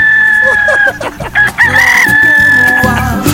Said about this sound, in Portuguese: Ai, grita, galo.